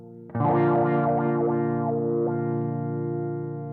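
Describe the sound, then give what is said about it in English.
A loud, distorted electric guitar chord rings out while the wah of a Zoom G1X On guitar effects pedal sweeps its tone up and down several times, then the note sustains and slowly fades. “Hear that kind of wah sound that it's doing?”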